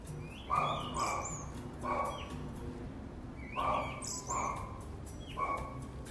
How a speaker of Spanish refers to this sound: Y también se pueden escuchar a los pajaritos.